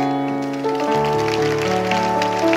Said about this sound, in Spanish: Vamos a darle palmas al Rey.